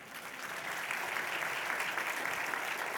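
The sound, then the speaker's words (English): An audience applauds volunteers steadily, a dense wash of many hands clapping at once, sustained and fairly loud throughout with no voices standing out. “Y'all clap it up for my volunteers.”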